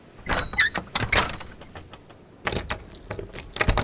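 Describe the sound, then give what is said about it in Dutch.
A small door set into a gate is opened by a gatekeeper: a series of heavy clunks and rattling latch sounds, a brief metallic creak, then scraping and a final thud, with no voices. “De poortwachter opent opeens de kleinere deur in de poort voor me, maar houdt me toch tegen.”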